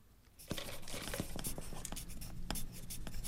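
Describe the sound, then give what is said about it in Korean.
Steady scratching of a pen moving across paper, with short strokes and brief taps as it writes continuously, as participants in a class write a poem about their own lives; no voices present. “자, 이제 이론은 다 배웠으니까 오늘은 자신의 인생에 관한 시를 써보도록 하죠.”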